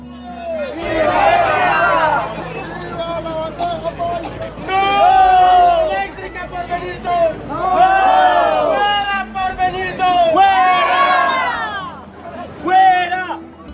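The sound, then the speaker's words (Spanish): A crowd of voices chants spontaneous protest slogans outdoors at a river festival, against an upcoming project. The chanting comes in loud, repeated bursts, the rhythmic group shouting rising and falling every few seconds over a steady background murmur. “Por eso se volvieron cada vez más comunes las arengas espontáneas en el festival contra el proyecto por venir.”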